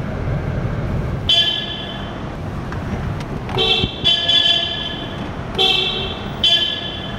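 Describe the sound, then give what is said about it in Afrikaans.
Several car horn honks ring out over a steady rumbling drone, with toots coming in short bursts and overlapping, echoing inside a road tunnel as drivers honk by tradition while driving through it. “is tradisie om die toeter te blaas as jy deur die tonnel beweeg.”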